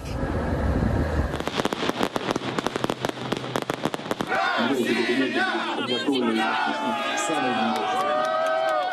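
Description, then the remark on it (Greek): An outdoor crowd of Russian speakers in the streets of Donetsk and Luhansk, holding Russian flags, celebrates Moscow's recognition loudly as a rapid burst of fireworks crackles and pops in the sky for several seconds, then shouting and cheering voices fill the rest, continuous. “Με το άκουσμα τη είδηση τη αναγνώριση από τη Μόσχα, ρωσόφωνοι στον Ντονιέσκ και το Λουγκάνσκ ξεκίνονται στου δρόμου πανηγυρίζοντα. Με πυροτεχνήματα στον ουρανό και ρωσικέ σημαίε στα χέρια, λένε πω περίμεναν χρόνια για αυτή την ημέρα.”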